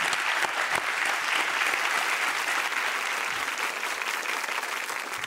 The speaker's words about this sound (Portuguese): Aplausos aí para os guardiões.